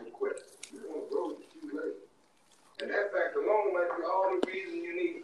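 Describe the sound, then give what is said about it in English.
Tap water bubbles and gurgles steadily for a few seconds, fairly loud, after a brief stretch of voice-like sound and a short pause. “Now I don't think all day water bubbles like that because that's weird and gross.”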